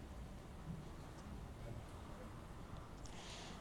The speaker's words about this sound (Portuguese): A previsão é de chuva ao longo do dia. São Luís amanheceu com esse tempo chuvoso.